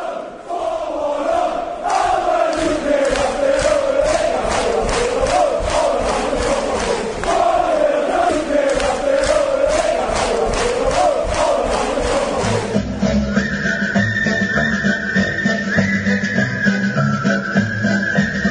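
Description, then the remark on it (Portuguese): A large crowd of football supporters loudly chanting a melodic parody song in unison, with steady rhythmic clapping beneath, until the sound shifts to a different, more tonal texture near the end. “assim como o pessoal de Newcastle, conhecido como Jordi, o pessoal de Sunderland é conhecido como Macken, mas a gente vai ouvir isso na sequência da música e da paródia é, melódica.”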